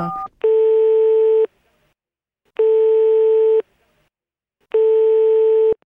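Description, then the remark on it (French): A quick burst of telephone dialing tones as someone calls the MLF, then three long, steady line tones about a second each, separated by even pauses. Clear, with no talking. “Alors moi, ni une ni deux, je prends le téléphone et puis j'appelle.”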